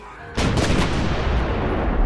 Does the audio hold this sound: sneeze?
no